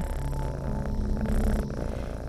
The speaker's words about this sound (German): Das Schnurren wirkt wie das tollste Schlaflied.